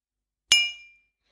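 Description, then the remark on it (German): A single bright clink of glasses touching, a sharp strike followed by a short high-pitched ring that fades within half a second, heard alone in silence. “Klingt genauso. Warte mal. Ah, das ist, das ist besser. Chin Chin.”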